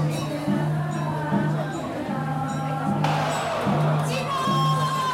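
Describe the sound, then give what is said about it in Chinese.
A crowd of tens of thousands inside and outside the Baishatun Gongtian Temple (Mazu temple) calls out together to Mazu, inviting her to board the palanquin at the procession's departure ceremony: a dense, continuous roar of voices, with rhythmic, chant-like swells repeating every second or so, steady and loud throughout. “So 也进了， 就是所有的人拢要呼唤妈祖，邀请伊紧的来点叫，邀请妈祖赶快来登轿。”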